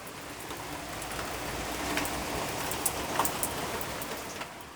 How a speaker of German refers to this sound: Das Wetter hindert mich. Ah. Es regnet so stark,